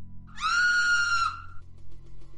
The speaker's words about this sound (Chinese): 王小飞呆愣了一会儿，崩溃的尖叫起来。